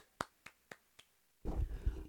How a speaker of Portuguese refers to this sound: Palmas para as mulheres.